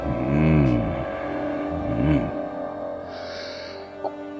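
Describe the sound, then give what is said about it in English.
Motorized curtains opening: an electric motor whines up and down in pitch twice over a steady mechanical hum, then a soft sliding swish and a small click at the end. “I also added motorized curtains to reveal my masterpiece.”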